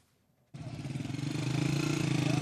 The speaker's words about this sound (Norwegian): Unge menn på mopeder kommer hjem. De fleste fra byen Assas rømte da krigen kom hit. Men fredag falt byen, som ligger sju kilometer fra den tyrkiske grensen. Nå kjører menn frem og tilbake for å se hva som er igjen av byens bygninger.